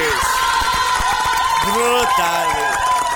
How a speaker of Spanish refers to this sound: Es la mejor película del 2023 de superhéroes, así que chicos, otra vez un aplauso brutal y una Bellatrix de oro para Guardián de la Galaxia Volumen 3.